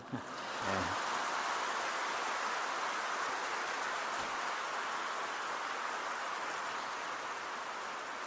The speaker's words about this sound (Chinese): 这个鼓掌啊，也不用缴税金，不必吝啬。再一次看看啊，哎呀，如果这鼓掌声很大，我就会考虑下次要不要来马来西亚。